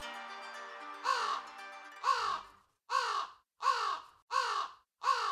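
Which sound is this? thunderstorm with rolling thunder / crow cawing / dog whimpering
crow cawing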